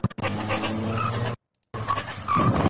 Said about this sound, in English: He just hit that car and just loses it.